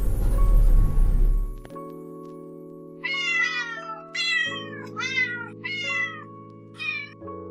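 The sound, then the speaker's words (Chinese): Many cats gathered together meow in quick succession, about five high, wavering mews overlapping one another above a steady humming backdrop, following a short burst of rough noise at the start. “许多的猫聚在一起。”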